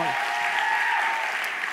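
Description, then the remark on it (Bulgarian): Steady applause from an audience, a dense wash of many hands clapping at an even, loud level throughout the short stretch. “Ръкопляските за”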